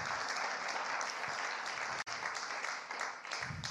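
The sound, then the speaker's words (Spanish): An audience applauds steadily, a dense wash of many hands clapping at an even, fairly loud level, with a brief break near the middle before the clapping carries on. “Tienen un aplauso, Señor amado hermano.”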